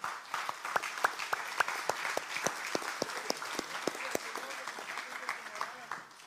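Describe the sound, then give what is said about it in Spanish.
A group breaks into applause in praise of the Lord, many hands clapping in a dense, steady patter of sharp claps that holds at moderate loudness for about six seconds before easing slightly at the end. “Yo le daría palmas al Señor, hermano.”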